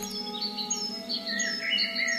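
A crow behaving strangely at a grave calls repeatedly, its bright, sweeping cries coming in a steady, overlapping series over a faint constant hum, with no one speaking.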